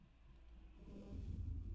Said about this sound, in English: A car, two cars, man. Road's busy tonight. 4:46 p.m. on a Sunday. I've seen three cars already.